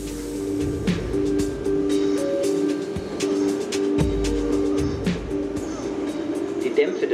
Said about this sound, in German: Die U-Bahnen fahren weiter.